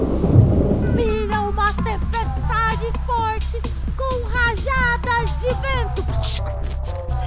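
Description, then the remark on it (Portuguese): A voice imitates a thunderstorm, rumbling and roaring steadily for several seconds with a rushing, rain-like hiss underneath, loud throughout. “Faz barulho de trovão aí.”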